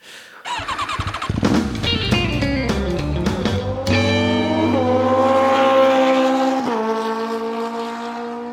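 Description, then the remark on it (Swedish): A motorcycle engine roars as riders drive past, its pitch climbing as it accelerates and shifting through several gear changes, loud and steady throughout with no voices. “Ja, men det går ju så fort när vi åker förbi.”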